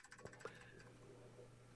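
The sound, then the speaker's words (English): Two quick, faint clicks of a mechanical keyboard switch being pressed on a standing desk, picked up by a microphone in front of the typist's face rather than near the keyboard, close together near the start, over a steady low electrical hum with no talking. “And if I don't put it any closer to the keyboard and just press the switch, I mean, sh- clearly you're going to hear that.”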